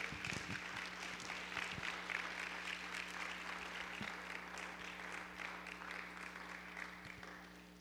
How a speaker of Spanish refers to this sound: ¿Cuántos dicen amén? Dar un aplauso fuerte al Señor, por favor.